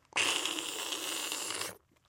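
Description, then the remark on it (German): A voice imitates slurping a bowl of soup: one long, steady, airy sucking hiss lasting about a second and a half, starting and stopping abruptly, with no talking. “Naja, ob er so geschlürft hat, weiß ich nicht.”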